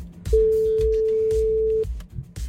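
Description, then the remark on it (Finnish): A single steady ringback tone as the Energy morning radio show phones a listener who sent in a story: one long beep of about a second and a half, clear and fairly loud over faint background rumble and clicks. “ja taas olisi aika soittaa jollekin, tota, joka on meille sta- tarinaa lähettänyt.”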